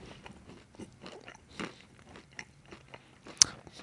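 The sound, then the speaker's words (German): Crunchy chewing on a piece of Le Grand Noisette, Lindt chocolate with large hazelnuts: a series of irregular crisp bites and crackles, with a sharper snap near the end, fairly quiet overall and no talking. “Ja, einmal esse ich jetzt hier ein Stück Le Grand Noisette.”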